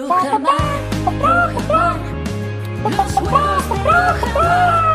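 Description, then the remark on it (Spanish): Laying hens raised on the ground cluck in short, repeated bursts over a steady musical backing with a deep bass line, the clucks rising and falling in quick rhythmic groups throughout. “Y claro, esas gallinas que están entrenadas, que ponen esos pedazos de huevos todo el día para que tú los puedas disfrutar en tu casa, son gallinas.”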